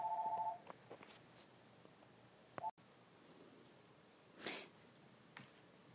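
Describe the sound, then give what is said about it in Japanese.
A home landline telephone rings with a short, rapidly warbling electronic tone at the start, then a brief second chirp a couple of seconds later, against a quiet background with a burst of noise near the end. “あ電話が鳴ってるわ”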